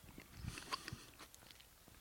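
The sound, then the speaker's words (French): A quiet bite into a grape berry two weeks before harvest, a soft crunch followed by a few brief wet chewing crackles over about two seconds, with no one speaking. “l'idée, c'est pas de croquer les pépins à ce stade-là.”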